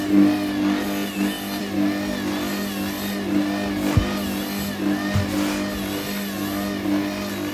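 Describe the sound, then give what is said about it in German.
A kitchen machine kneads a very sticky, moist dough with a steady, droning motor hum whose pitch wavers slightly, broken by a couple of brief thuds partway through. No one speaks. “helfe ich der Maschine mal kurz, nämlich einmal mit dem Silikonspatel hier an der Wand lang gehe.”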